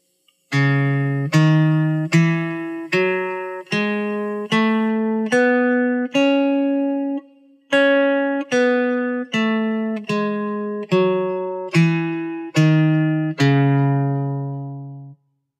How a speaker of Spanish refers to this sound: Entonces la escala de do sostenido menor natural queda así. Do sostenido, re sostenido, mi, fa sostenido, sol sostenido, la, si, do sostenido. Escuchemos.